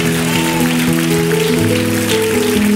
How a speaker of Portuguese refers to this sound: Isso, vem e vamos aplaudir mais o Senhor Jesus, igreja.